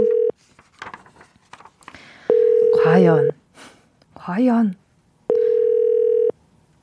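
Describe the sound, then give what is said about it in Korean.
An outgoing call's ringback tone repeats: steady one-second electronic tones with pauses between, loud and clear, as a host places the first phone call to a listener in a call-in quiz. A voice speaks briefly in the gaps between the rings. “어떤 분이 과연 전화 받게 될지 바로 걸어보겠습니다. 첫 번째 통화는요. 9032님입니다. 자, 전화 가나요?”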